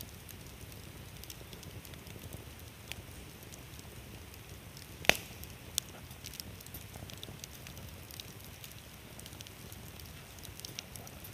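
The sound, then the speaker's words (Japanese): A campfire beside the clear Choshi River crackles steadily with a soft, continuous hiss, scattered with small snaps and one sharp loud pop near the middle; no voices. “今パチパチとハゼるキャンプファイヤーを見ていますいやの音も光もほっとしますね。”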